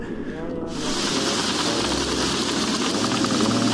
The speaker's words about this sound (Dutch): Ja, die, die eerste overtocht was eh, zonder elektriciteit. dat was mijn petroleumlamp.